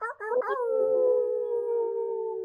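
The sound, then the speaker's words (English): A person imitates a wolf howl: a few short wavering yelps rise into one long, steady, sustained howl that holds a fairly level pitch and stays loud throughout. “Wolf howl for everybody listening.”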